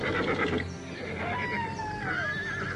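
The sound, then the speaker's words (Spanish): A restless horse lets out a long, quavering whinny that trails downward in pitch, against a steady, noisy background with no one speaking. “los caballos se mostraron inquietos y le llevó bastante tiempo a Johan calmarlos”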